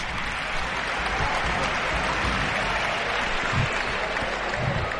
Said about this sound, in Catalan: atenció a l'ovació de Pau Ribas. Mira, mira. Se'n va a la banqueta, tothom d'en peus.